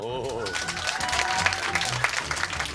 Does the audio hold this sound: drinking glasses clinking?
no